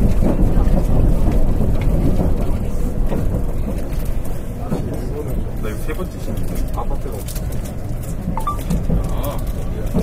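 A loud, steady low rumble fills the cabin of a Nankai Electric Railway Rapi:t β express train running at speed from Rinku Town to Namba, with a constant roar and faint rattles and clicks throughout.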